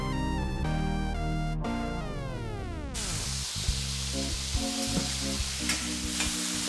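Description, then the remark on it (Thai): Morning glory (water spinach) sizzles and hisses as it is stir-fried in a hot pan, with occasional scraping clatters, after a short burst of descending tonal music at the start. “ทำอะไรกินจ๊ะ หืมกลิ่นหอมไปถึงปากซอยเลยเนี่ย หลายอย่างเลยเพื่อนสาว นี่ ผักบุ้งไฟแดง”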